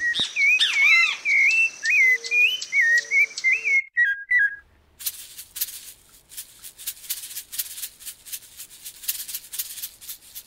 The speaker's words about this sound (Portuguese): Mas para que que eu fiquei o dia todo, todo dia ouvindo os passarinhos cantando longe e perto? Parece que um amarelo estava no galho da laranjeira ao lado da janela.